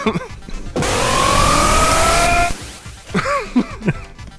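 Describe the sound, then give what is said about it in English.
The Colossus roar from the X-Men arcade game bursts in loudly for nearly two seconds, gritty, noisy and distorted with a strained tonal edge, then cuts off abruptly as people resume talking. “now, because you can't talk about the X Men arcade game without the Colossus roar.”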